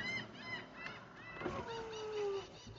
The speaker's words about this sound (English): I apologize for the seagulls going nuts.